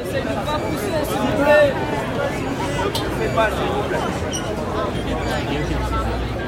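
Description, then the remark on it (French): A dense crowd jostling in a festival queue murmurs and chatters all at once, many overlapping voices forming a steady hubbub with occasional louder shouts rising above the babble. “Tout le monde se bouscule, les menaces fusent à cause de la peur de perdre un centimètre carré de la place dans la file”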